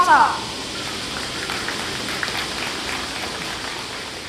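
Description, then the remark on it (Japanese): A dense, continuous drone of cicadas buzzing outdoors during the children's Pledge for Peace in Hiroshima on 6 August 2021 fills the whole stretch, a steady shimmering hiss that neither pauses nor swells. “セミの音がとても聞こえましたね”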